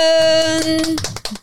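Applause welcoming a guest onto the show: a quick, irregular patter of many hand claps, fairly loud, with a bright sustained musical tone ringing over the first half before the clapping thins out and ends.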